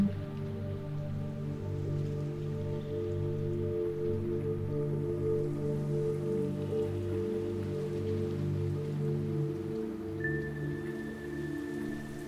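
Steady rain patters continuously on a surface, a soft, even hiss that sits over a low, sustained humming drone, with no voices and no change in intensity throughout.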